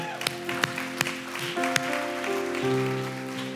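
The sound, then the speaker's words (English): A church audience claps after a prayer over sustained organ or keyboard chords, a few sharp, distinct handclaps standing out early on before the music swells and carries on alone. “Come on, give them a hand clap today.”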